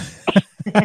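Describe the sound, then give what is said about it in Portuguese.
Two quick sneezes in a row, each a short, sharp burst with a voiced, breathy edge, the second slightly longer and stronger, with no talking around them. “Saúde”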